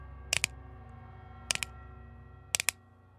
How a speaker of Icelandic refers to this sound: Hún smelti tvísvar og það var bankað tvísvar. Hún smelti þrísvar og það var bankað þrísvar.